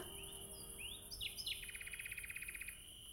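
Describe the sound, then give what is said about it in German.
A quiet outdoor spring night ambience where a single bird sings: a few rising whistles, then a fast, even trill of rapid repeated notes, over a soft low hum. “Nichts und niemand als diese Frühlingsnacht. Hörst du sie?”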